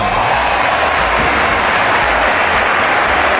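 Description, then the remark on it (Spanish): Many people clapping steadily, a dense, loud wash of many hands that holds at a constant level for the whole few seconds with no voices over it. “¡Aplauso!”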